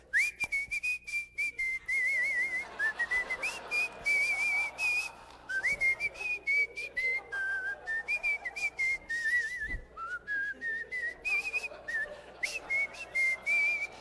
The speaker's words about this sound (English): Now, when I whistle, you probably notice I don't whistle with my lips, I whistle with the roof of my mouth. So when I whistle, nobody usually knows it's me.